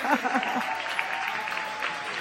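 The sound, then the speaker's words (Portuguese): An audience applauds steadily after a performance by a band, a dense wash of clapping from many hands that stays at a constant level, with a few faint voices mixed in at the start. “Não precisa nem pedir mais, é só aplaudir.”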